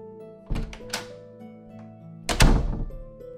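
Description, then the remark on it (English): A door shuts with a solid thunk near the end as someone goes out, preceded by a couple of lighter knocks, all over a steady low background hum. “Olivia and Christopher nod to Callum as Callum goes to the door.”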